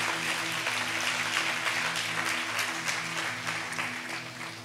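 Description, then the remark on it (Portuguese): An audience applauds in the name of Jesus during a sermon, a dense, continuous clatter of many hands lasting throughout, with a low sustained organ-like hum underneath and no speech. “Pode aplaudir ao nome de Jesus.”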